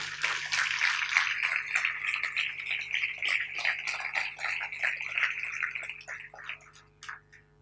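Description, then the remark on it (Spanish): An audience at a church service applauds loudly for God, a dense crackle of many hands clapping together that holds steady for several seconds, then thins out and fades with a few last scattered claps. “Le puede dar un fuerte aplauso a Dios.”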